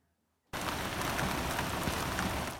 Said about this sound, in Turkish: Meteoroloji dün Muğla için uyarı vermişti. Beklenen yağış geldi. Şehirde dereler taştı, sokaklar su altında kaldı.